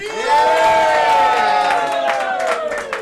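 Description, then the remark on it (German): A football stadium crowd at the Alte Försterei on a Saturday evening roars and cheers in a loud, sustained wall of voices, with the Dortmund supporters also clapping, rising collective shouts and some whistles cutting through near the end. “Ja, da befand ich mich dann schon wieder im Aufzug hoch in die dritte Etage und die Stimmung im Wohnzimmer Alte Försterei, die klang am Samstagabend so.”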